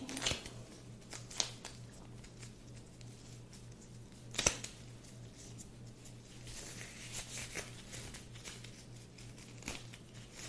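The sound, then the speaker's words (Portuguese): A disposable glove is peeled off: soft crinkling and rubbery rustling with a few sharp little snaps, quiet and intimate over a faint low hum, with no talking. “Vou tirar aqui minha luva rapidinho.”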